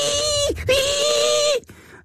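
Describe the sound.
A voice imitates the high-pitched whining squeal some men make, like a stuck pig, in two loud bursts: a short one that drops off, then a longer steady whine that cuts out abruptly.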